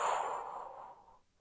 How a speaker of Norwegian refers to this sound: Da kan vi begynne med å puste inn. Hold pusten. Og pust ut